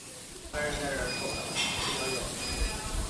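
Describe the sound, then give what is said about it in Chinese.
Clay pots stewing on large iron plates over an open-flame stove in the kitchen of Shaguoju sizzle and hiss steadily. A dense crackling spatter starts abruptly after a brief quiet moment and holds loud and even, with a faint high whine above it. “这呲呲啦啦的声音，就是砂锅灶上靠砂锅的声儿。”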